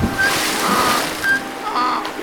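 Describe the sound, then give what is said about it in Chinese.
Water splashes and churns in a steady, hissing rush for a couple of seconds as a donkey carrying a large sack of salt slips on a stone and falls headfirst into a river, swelling and easing in a few loud surges with no voices. “又滑了一跤，一头栽进了河里。”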